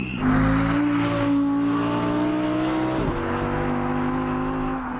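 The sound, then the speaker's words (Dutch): The V10 engine of a new Audi R8 sports car, being test-driven, roars loud, holding a steady high-pitched howl, briefly dipping around the middle as if shifting, then continuing to drone strongly. No one speaks. “die test de nieuwe Audi R8 V10.”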